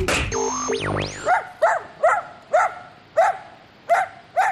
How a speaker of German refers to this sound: Hund im Radio?